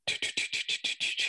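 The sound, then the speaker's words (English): A loud insect chorus of crickets or cicadas pulsing in a fast, steady rhythm, about eight raspy bursts in quick succession, with no voices. “There's something going on, and then every now and then there's a chorus of”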